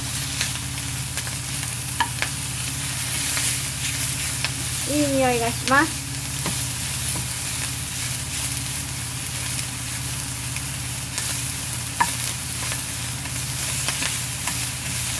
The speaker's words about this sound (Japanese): 焦げちゃった焦げちゃったさあ私は今何と何を炒めてるでしょうか全然わかんないよねこれ